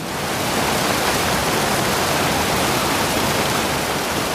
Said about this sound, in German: Und wenn man sich dann in diese Richtung aufmacht, dann wird aus dem Grollen irgendwann tatsächlich ein lautes Donnern und dann ist man an einem von Islands legendären Wasserfällen.